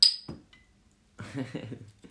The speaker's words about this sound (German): Äh, ich mache mir noch ein Bier auf, ja.